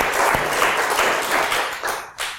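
audience applause

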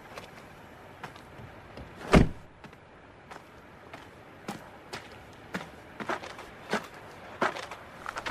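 car trunk being opened

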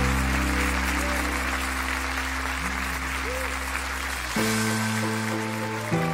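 audience applause

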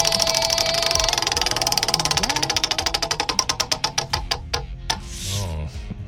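prize wheel spinning

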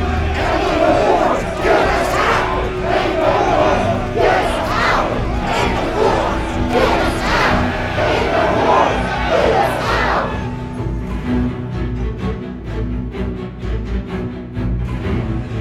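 protest march crowd shouting

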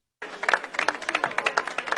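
audience clapping

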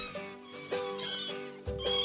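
kitten meowing

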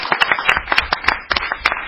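audience applauding

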